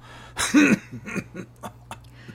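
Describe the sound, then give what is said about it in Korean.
A very thin man coughs heavily while pulling his clothes tight and turning away outside a shabby converted thatched house: one harsh, strained cough followed by a run of shorter, weaker coughs and rasping breaths, with no talking. “기침을 심하게 하면서 옷을 여미며 돌아서는 그 아저씨.”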